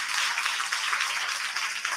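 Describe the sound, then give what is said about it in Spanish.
An audience applauds steadily for a performer at an event in Mieres, a dense, even patter of many hands clapping at once that holds at the same moderate level throughout, with no voices. “Así que nada, un aplauso muy grande”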